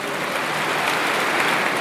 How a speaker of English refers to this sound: The crowd in the stadium applauds.